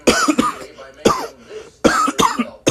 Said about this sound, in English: How it be when you cough now?